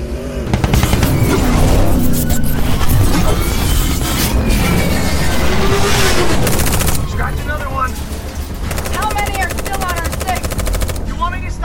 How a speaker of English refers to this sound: stop shooting and count? I'm out! Reload! This is the last case!